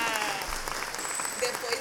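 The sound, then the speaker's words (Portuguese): Steady applause from a group, dense overlapping claps forming a continuous crackling wash of sound at an even, fairly loud level throughout. “Então, eu senti palmas, palmas agora.”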